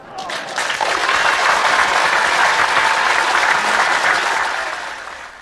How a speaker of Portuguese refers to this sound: Palmas para ela!